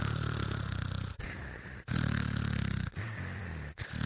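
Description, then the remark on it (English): A voice imitates loud snoring: four harsh, rattling breaths in quick succession, each a deep guttural rasp that sounds much like an animal growl. “And so I started thinking, well, wait a minute, maybe there is a function for snoring. It does sound like an animal growl.”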